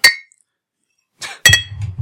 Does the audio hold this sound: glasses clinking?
yes